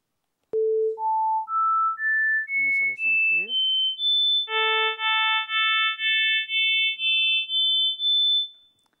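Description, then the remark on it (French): A sequence of pure sine tones stepping upward in pitch, then a series of steady harmonic tones in which the lowest harmonics drop out one by one, each tone a short clean beep in a regular rhythm. “d'abord la suite des sons monofréquentiels, puis les sons harmoniques, avec au fur et à mesure perte des harmoniques les plus basses”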